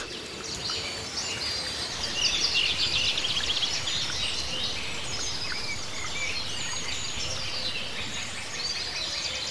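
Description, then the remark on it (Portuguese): Many birds sing and chirp together in the trees of a garden, a dense, continuous chorus of high warbles and tweets over a soft outdoor hum, with no one talking. “Nosso simpático anfitrião faz um gesto em direção às árvores e os pássaros começam a cantar.”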